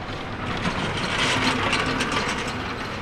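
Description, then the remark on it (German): A forklift's steady mechanical whir and rapid ratcheting clatter, fairly loud, running continuously without pause and with no voices, as workers move the last pallets from one corner to another at the Frankfurt wholesale market at 8 a.m. “Auf dem Frankfurter Großmarkt buxieren Arbeiter letzte Paletten mit dem Gabelstapler von der einen in die andere Ecke.”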